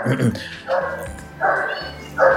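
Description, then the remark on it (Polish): A mongrel dog barks three times in a steady, spaced rhythm, each bark short and moderately loud, with a low murmur of voices underneath. “E, co za głupi kundel, no.”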